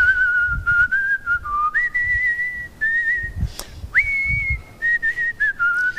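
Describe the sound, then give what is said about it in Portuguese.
A person whistles a melody, clear sustained notes stepping up and down in pitch, fairly loud, with short pauses between phrases and soft low thumps underneath. “And he was working. Ele estava trabalhando lá. And whistling. Whistling. E assobiando.”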